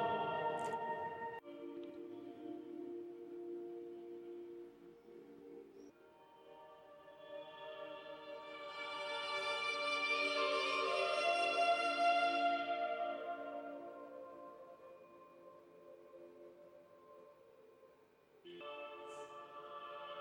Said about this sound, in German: Hast du eben gehört, wie dieser Hall in diesem Raum wirkt und wie diese ehre, beruhigende, erhabene Musik klingt? Wir sitzen hier in dem Sala de la Boveda. Das ist im Inneren des Uhrenturms, des Glockenturms, auf der Ebene der Aussichtsplattform.